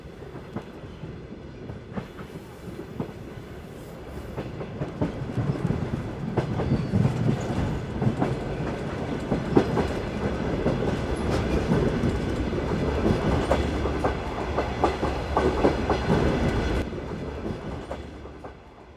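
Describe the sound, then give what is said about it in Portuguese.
A train rolls steadily along the rails with a rhythmic clickety-clack, the rumble building after a few seconds and holding loud before easing off near the end. No one speaks. “Eu saí do trem e reconheci imediatamente o cenário.”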